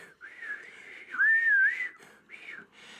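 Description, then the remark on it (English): A person whistles a sustained, high-pitched tune in a few phrases, rising and wavering, loudest in the middle, clear with no talking. “The, the whistle was ear splitting, unlike the whistle we just uh, made for you.”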